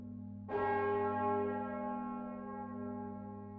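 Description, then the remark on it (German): A deep, heavy church bell, the deepest and largest of a set of six, tolls once, its strike blooming into a long, resonant hum that lingers over a steady low drone from earlier ringing. No voices are heard. “Die tiefste, grösste Glocke, die läutet zum Beispiel einmal vor einer Beerdigung.”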